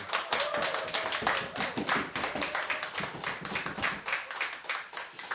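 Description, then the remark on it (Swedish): A seated audience at the Fountain House premises on Götgatsbacken, during the radio programme Radio Total Normal, claps steadily, many hands producing a dense, sharp patter that holds at a fairly even level throughout, with no voices over it. “Som vanligt från Götgatsbacken får vi höra lite ljudligt ifrån publiken som har bänkat sig ner här.”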